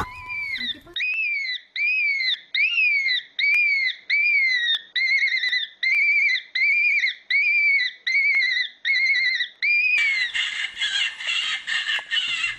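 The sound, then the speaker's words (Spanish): A fox calls over and over in a steady rhythm, about a dozen high, yelping cries in close succession, loud, ending in a burst of rough noise. “Estamos escuchando el sonido de un zorro.”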